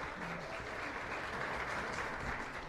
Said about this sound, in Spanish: ¡Aplauso!